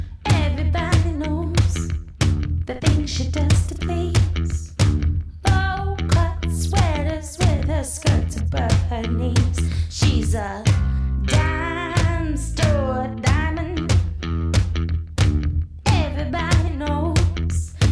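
A loud, steady stretch of a rock song plays throughout, with a driving full band, heavy bass and drums, and a sung vocal line bending and soaring over the top.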